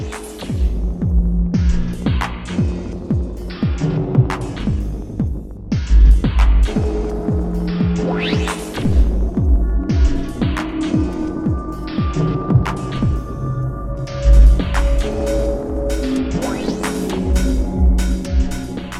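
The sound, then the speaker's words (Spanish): Dense electroacoustic music, a 2002 remix by a young Danish composer, built on a loud, throbbing low hum with sharp percussive clicks, sweeping tones and sustained synthetic pitches layered throughout, no voices. “que fue parte de un remix iniciado por Diem en la primavera de 2002, en el que se pidió a cinco jóvenes compositores daneses que remezclaran la primera pieza de música”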